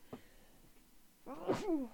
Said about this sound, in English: And um, I have to sneeze. Hold on.